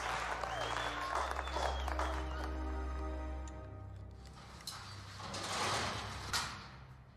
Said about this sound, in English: How about a big hand for your new team captain